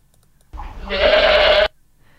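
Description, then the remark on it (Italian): A single loud bleat from a goat kept isolated from the rest, rising into a strained, wavering cry that lasts about a second before cutting off, with quiet background otherwise. “questo è la capra sola, la, mm. la capra che viene isolata in questo modo per qualche ragione.”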